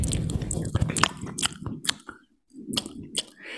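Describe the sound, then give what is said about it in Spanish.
Wet, smacking open-mouthed chewing of lobster tail by a woman eating right beside a microphone, fairly loud, with rapid squishy bites and crunches, a short pause partway through, then more chewing. “Y lo peor es que yo, o sea, tus modales te dicen, mira, deje comer con la boca cerrada, pero yo creo que lo hace a propósito y mastica con la boca abierta, entonces se ve, se, ve y se escucha todo.”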